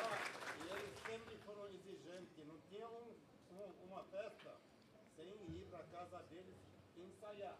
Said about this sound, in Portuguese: Uma salva de palmas para todos eles aqui.